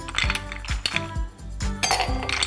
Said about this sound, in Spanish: Ahora sí, aquí les va la preparación. Vamos a colocar en nuestra copa de globo un poco de hielo,